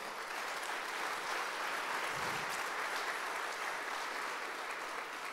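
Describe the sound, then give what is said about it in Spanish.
A church audience applauds the Lord steadily, a dense wash of many hands clapping at once that holds at an even level for several seconds without pause or voices rising above it. “¿Cuántos dicen amén y cuántos aplauden al Señor por eso?”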